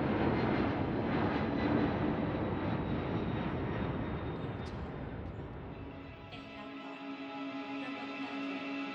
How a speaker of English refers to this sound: Finally, the plane landed.